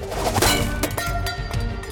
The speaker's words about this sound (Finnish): Haudan päässä otin aseeni viereeni, kokosin käsikranaatin ja heitin sen. Ihme kyllä, se kolahti lapioon ja tipahti vihollispoteron pohjalle.